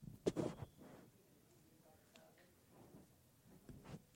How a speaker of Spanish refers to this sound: Pausa para abrir agua.